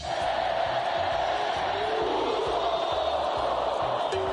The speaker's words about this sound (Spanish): Ahora sí va en serio, acaba de multar a México ¿Ah? por el glorioso y homofóbico canto de...